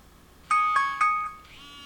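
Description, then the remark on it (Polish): A phone timer alarm sounds as the countdown runs out, three quick bright electronic chimes, evenly spaced, followed by a softer fading tone, clear with no talking. “No i za chwilę zobaczymy, jak nam się minutnik mm, zachowa. Czas minął”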